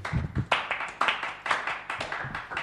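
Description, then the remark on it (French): An audience applauding, a dense patter of overlapping hand claps that stays fairly steady and moderately loud throughout, with no voices over it. “Ah on peut les applaudir, évidemment.”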